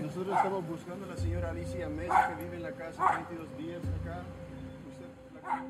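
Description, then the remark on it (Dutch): A small dog, walked by a woman along a sidewalk on a hot, sunny day, barks in a few sharp, high yaps spaced irregularly, while people talk underneath throughout. “Dan komt er over de stoep een vrouw met een hondje onze kant opgelopen.”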